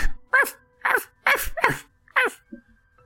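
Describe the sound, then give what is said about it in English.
A person imitates a dog barking with five short, voiced woofs in quick succession, each with a falling pitch, moderately loud, off to the left, with no talking in between. “You hear kind of some meager uh, human barking sounds oh, off to the left.”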